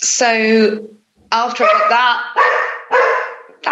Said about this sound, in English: that that's a dog. That's a dog.